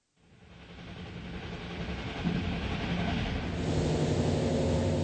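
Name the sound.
train travelling on rails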